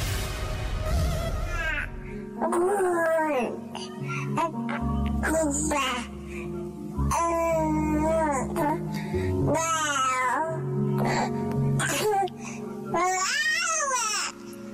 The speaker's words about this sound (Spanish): Para los que son, em, las que son mamás o papás, eh, cuando escuchan a su bebé balbucear por primera vez, eh, ¿a poco no es lo más bonito del mundo, no?